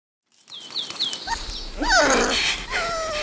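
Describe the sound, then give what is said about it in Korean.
A small poodle puppy in Ssangam Park lets out a string of high-pitched yaps and yelps at a frightened passerby, starting with quick thin chirps and rising to louder barks. “푸들도 자기를 무서워하는 사람인 줄 알고 얕잡아 봤는지 왕왕 짖었다.”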